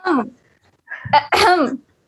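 Fairly loud coughing: one rough cough, a short pause, then two more harsh coughs in quick succession, with no talking around them.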